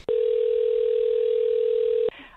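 A steady telephone dial tone hums at one even pitch for about two seconds, framed by a sharp click at each end, then gives way to faint line noise, as a caller tries to call someone back after the call dropped.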